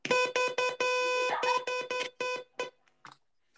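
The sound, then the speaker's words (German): A harsh, buzzy, car-horn-like censor sound effect blares in a rapid series of short honks, with one longer sustained blast near the start, then trails off into a few fainter, clipped bursts. “Das klingt irgendwie, als hättest du ein Auto in deinem Zimmer stehen. Und dann würdest du und halt, dann würdest, äh, währenddessen uh.”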